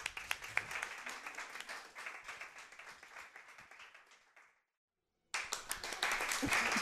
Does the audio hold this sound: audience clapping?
yes